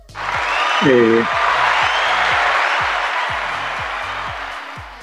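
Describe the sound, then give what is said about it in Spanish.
A burst of crowd applause and cheering plays as a sound effect added to a show with no live audience, loud and steady for several seconds, with a voice briefly rising through it near the start and low rhythmic music pulsing underneath. “No tenemos público, pero teníamos que meter los aplausos.”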